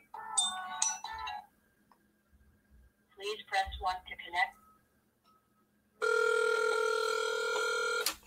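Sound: outgoing phone call ringing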